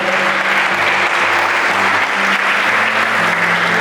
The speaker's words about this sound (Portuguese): Dá um aplauso aí.